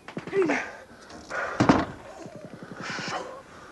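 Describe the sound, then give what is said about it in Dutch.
A door slams shut once with a sharp, heavy, loud bang near the middle, surrounded by strained vocal sounds before and after. “Dicht die deur!”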